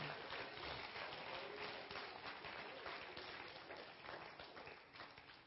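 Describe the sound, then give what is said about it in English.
An audience claps their hands in praise to the Lord in a dense, steady wash of applause that carries on without a break and tapers slightly toward the end, with no voices standing out. “Clap your hands to the Lord and give Him praise right now.”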